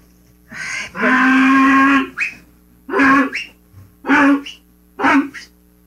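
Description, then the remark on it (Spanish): A mule brays loudly, a long harsh cry followed by a series of shorter rasping heaves in an uneven rhythm, with no talking over it. “Oíla. Todavía no, Rafael. Pero oímelo. Es la mula el difunto.”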